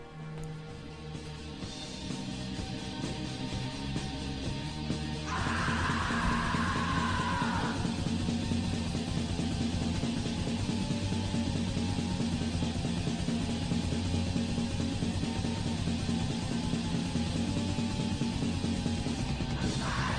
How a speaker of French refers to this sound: Entre black metal et ambiante, je vous mets un petit extrait qui est également un montage pour vous montrer un peu l'étendue du bonhomme. Et ça, c'est son premier album.